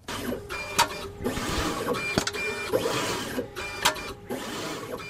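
A lab machine whirs and clatters as it uncaps blood sample tubes, moving back and forth, repeating a mechanical cycle of rising motor hum and sharp clicks roughly every second and a half, steady.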